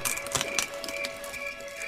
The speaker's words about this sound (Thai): อีกด้านหนึ่งของทะเลสาบมีดินแดนแสนงามอยู่ ต้นไม้ทำด้วยเงินและเพชรพลอย ทหารจึงได้หักกิ่งไม้เพื่อที่จะนำไปให้พระราชา เมื่อเขาได้หักกิ่งไม้ก็มีเสียงดังแกรก